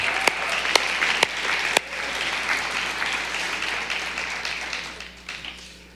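An audience in a church breaks into steady applause, a dense wash of many hands clapping, with a few sharper, louder claps standing out early before the sound gradually tapers off.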